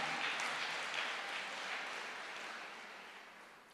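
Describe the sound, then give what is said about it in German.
An audience applauds steadily, a dense wash of clapping hands that holds for a few seconds and then slowly fades toward the end, with no one speaking. “Lass uns jedes Mal einen Applaus geben und seine Wahrheit.”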